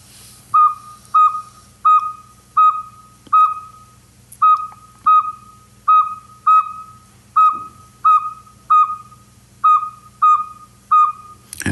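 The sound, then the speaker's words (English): A Northern Saw-whet Owl gives a long series of evenly spaced, whistled toots, about two per second, clear and fairly loud over a faint low background hum. “This is the Northern Saw-whet Owl.”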